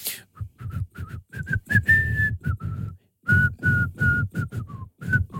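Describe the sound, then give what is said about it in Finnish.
Someone whistles a short, lively tune in a run of quick pitched notes, with a brief pause midway before the melody continues, fairly clear. “mutta sitten me saata alkaa viheltää jotain niinku”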